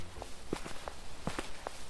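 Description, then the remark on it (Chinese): Footsteps of three people walking together toward the town, a steady, uneven patter of soft scuffing steps at a moderate pace over a low background hiss. “一起往镇上的方向走去。”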